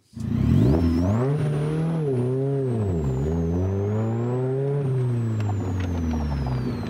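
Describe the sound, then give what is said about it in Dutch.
A Morgan Plus 4 sports car engine, being tested in the sun, revs up loudly, its pitch rising and falling through several throttle blips before settling into a steady, throaty drone. A faint high whine rides above it. “Ja, dat klinkt best lekker, hè? Dit is een Morgan Morgan.”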